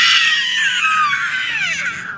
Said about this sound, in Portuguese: Vamos falar de A Pantera. E o grito da Pantera? Olha o grito da Pantera.